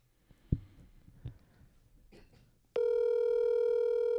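A few soft thumps and handling noises, then a loud, steady electronic phone tone starts abruptly and drones on without a break, like an outgoing call's ringing tone beginning.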